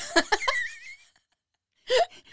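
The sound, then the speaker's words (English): A voice imitates the sudden squeals said to occur in a room: a few quick breathy bursts rise into a thin, wavering high squeal that fades out, then after a pause another short sharp squealing yelp, fairly loud. “It's creaking doors, knocking, sudden squeals, laughter, sounds of people talking, and whistling have all occurred in this room.”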